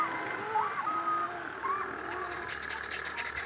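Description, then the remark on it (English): Little penguins tooting: a few short, mid-pitched hooting calls in quick succession, followed by softer, rapid pulsing chatter over a steady background hiss. “I love the sound of tooting little penguins.”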